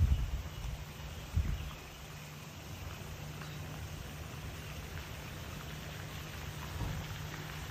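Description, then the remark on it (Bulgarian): Steady wash of running water fills the scene, a continuous rushing hiss with a few louder low thumps near the start and a faint swell toward the end; no voices are heard. “И тук към птичите песни, вероятно чуваш и шума на водата.”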